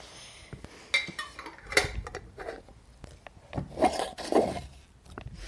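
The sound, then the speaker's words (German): Glass and metal clatter as lids are twisted onto glass jars filled and topped with a splash of salt solution, screwed closed but not very tight, with sharp clinks and short scraping turns in an irregular rhythm, moderately loud and with no talking. “Und jetzt die gefüllten Gläser gut verschließen.”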